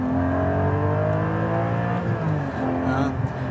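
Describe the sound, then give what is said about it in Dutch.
A Porsche 718 Cayman GT4 engine revs loudly and steadily, its harmonic drone rising and falling slightly, with a voice talking over it. “En je hoort het misschien al wel. Hij maakt lekker veel herrie.”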